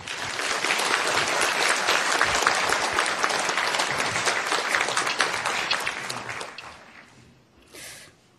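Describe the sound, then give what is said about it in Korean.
A large church audience claps warmly and steadily for several seconds to welcome a woman deaconess coming forward to give her testimony, a dense wash of applause that gradually tapers off, ending with a brief faint rustle. “나오실 때 아주 따뜻한 박수로 한번 환영해 주십시오.”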